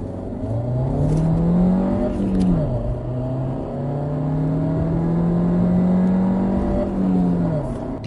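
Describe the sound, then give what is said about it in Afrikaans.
A 92 kW 1.4 turbo petrol engine with 200 Nm of torque in a Golf SV revs up and down in smooth, steady sweeps, its loud hum rising in pitch, dipping, then climbing again with no talking over it. “92 kW 1.4 turbo petrol is lewendig en loop seepglad.”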